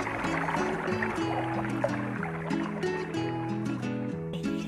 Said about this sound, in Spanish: Los acostumbrados paseos en verano hacen sentir una fresca brisa en mi rostro mientras camino hacia el arroyo y escucho el melodioso canto de sus aguas.